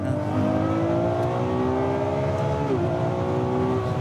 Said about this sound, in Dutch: Het is echt, het is zo'n bloedsnel apparaat. Eh, en wat ook bloedverziekend gaaf is, is de hoeveelheid toeren die hij eruit nou, even kijken of ik 9000 toeren durf te halen hier.